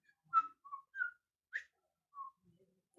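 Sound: person whistling a song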